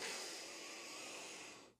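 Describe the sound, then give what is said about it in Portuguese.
A long, steady, slow deep inhalation drawn in through the mouth as part of a breathing exercise, an airy, rushing breath lasting nearly two seconds, with no talking, ending abruptly. “Quando a gente faz assim, ó, vou inspirar junto com vocês aqui.”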